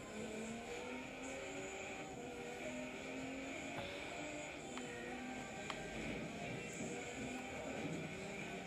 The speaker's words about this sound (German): Entschuldigung, Auto.